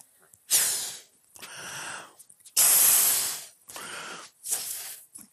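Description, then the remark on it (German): Someone blows up a balloon with five strong, breathy puffs of air, each a rushing hiss separated by short pauses, fairly loud. “Und ich habe euch nochmal einen Ballon mitgebracht.”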